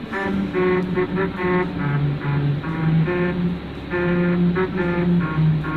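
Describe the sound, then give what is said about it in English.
A car drives over a musical road in Hungary, its tyres on grooved rumble strips producing a loud buzzing melody that shifts pitch note by note over a steady engine and road rumble. “So the car's driving along, and by going over the rumble strips, that tune plays.”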